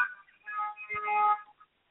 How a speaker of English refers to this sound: I figured you were like getting beeped or something, like by you know somebody like on the street.